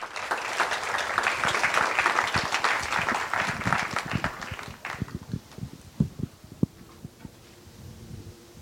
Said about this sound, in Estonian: teeme suure aplausi.